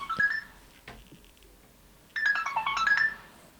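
A phone's text message alert chimes twice: a short bright melodic jingle, a pause of over a second, then a longer cascade of high electronic notes. No one talks.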